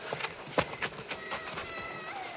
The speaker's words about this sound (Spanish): La niña se ha despertado y llora de miedo. ¿No la oyes, tirano? ¿No te conmueve el llanto de ese ángel?